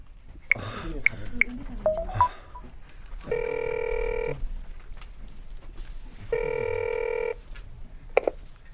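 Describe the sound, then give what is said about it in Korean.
A telephone call to the caller's wife is being placed: some brief clicks and rustling, then two steady, buzzy ringing tones, each about a second long, separated by a pause of a couple of seconds. “저 와이프한테 전화해.”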